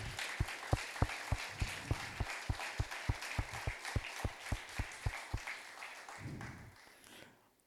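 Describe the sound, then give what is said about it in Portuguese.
A church audience claps together in praise of the Lord in a steady, quick rhythm, about eighteen sharp, even beats over a wash of crowd noise and scattered applause, before the clapping trails off and fades into a murmur. “Vamos aplaudir o Senhor porque Ele nos deu vida e vida em abundância.”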